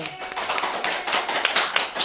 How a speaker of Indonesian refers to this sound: projection mapping yang ada di Jepang dan membawa nama Indonesia gitu sebagai finalis. Tepuk tangan dulu dong.